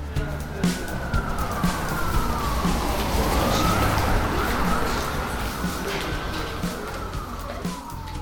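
A steady roar of city traffic, with cars, trucks and buses passing and people walking, fills the scene while an ambulance or fire engine siren wails through it, its pitch sliding up and down as it passes.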